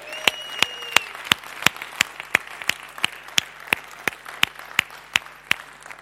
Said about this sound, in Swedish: Så jag tycker vi bara ger dem en rungande applåd till.